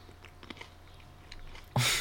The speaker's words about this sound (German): Jetzt muss ich mal kurz kauen.